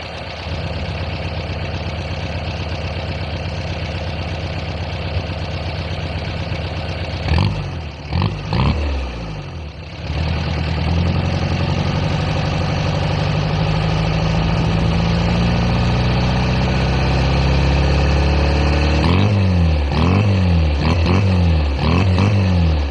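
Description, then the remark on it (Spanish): A Rastrojero pickup truck engine idles with a steady low rumble, revs briefly in a few rough bursts around the middle, then settles into a throatier idle with rhythmic throttle pulses near the end. “¿Cómo suena mi rastrojero?”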